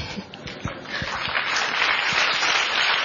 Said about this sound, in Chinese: 不过没关系啦，我们也是需要有观众给我们掌声。